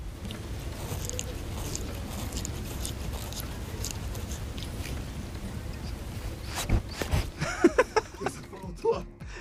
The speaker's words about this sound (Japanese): こちら飼い猫の毛づくろいする音と鼻息だそうですなるほどねあー毛づくろいの音ねジャリンジャリンジャリンってやつね確かに猫の舌ってちょっと尖ってるんだよねだからちょっとザラザラした感じの音が面白い音だな